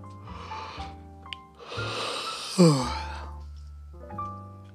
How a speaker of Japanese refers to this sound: またあくびが出てきた。